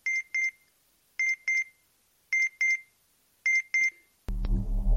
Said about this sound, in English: What is that? That's a notification from my earthbound communicator. It alerts me of any usage of the word Excelsior.